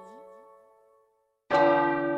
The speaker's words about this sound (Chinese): 当最后一下钟声敲响时，灰姑娘终于赶回了家。